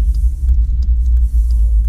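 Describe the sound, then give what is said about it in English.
A steady, deep engine rumble from inside a car in heavy Friday road traffic, loud and continuous with a low throbbing drone and faint higher noise above. “Oh this traffic is horrendous today on a Friday.”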